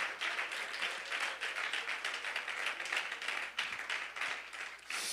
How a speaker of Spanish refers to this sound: Oh, brindémosle ese aplauso al Santo Rey de Reyes.